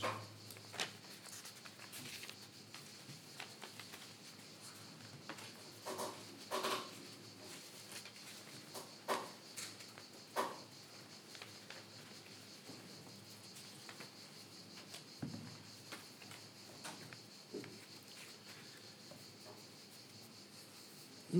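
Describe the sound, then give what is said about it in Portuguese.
Papers rustle and crinkle in short, scattered bursts as someone shuffles through their papers looking for something, quiet, with no talking and a faint steady high-pitched hum underneath. “Só um minuto, tenho que encontrar aqui nos meus papéis.”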